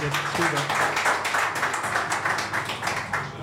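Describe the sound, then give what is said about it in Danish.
A steady burst of audience applause: many hands clapping in a dense, loud patter that lasts the whole moment, with a voice briefly heard at the start. “Kan du få et bifald?”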